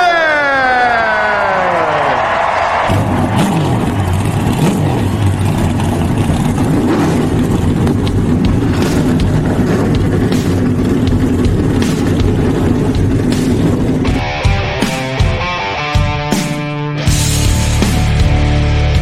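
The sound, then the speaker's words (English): Loud race car engines fire up and rev, a rising whine swelling into a dense, sustained roar that shifts pitch near the end, with no talking. “Driver, start your engine!”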